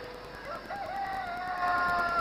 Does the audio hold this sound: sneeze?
no